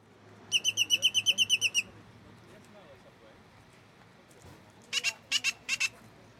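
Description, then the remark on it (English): A black bird in a few planted trees at a man-made oasis in Death Valley, California, calls close by in a quick run of about a dozen sharp, bright notes, falls silent, then answers with a shorter burst of five over a soft, steady background hum. “this strange prophetic black bird has taken up the challenge. The Polish lady is standing directly under him, pointing her microphone at his beak”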